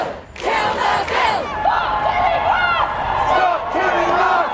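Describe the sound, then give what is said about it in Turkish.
Women in England protesting a woman's murder in the streets: a crowd shouting and chanting together, many overlapping voices rising and falling in loud, steady waves with occasional higher yells cutting through. “Kadın cinayetini protesto etmek için sokaklara dökülen İngiliz kadınlar, polisin o protesto eylemleri sırasında kullandığı aşırı güç ve yaşanan tartışmalar.”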